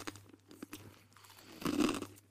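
Someone chewing a crunchy snack: a few soft, crackly bites at first, then a louder, denser burst of crunching toward the end, over a faint steady hum, with no talking.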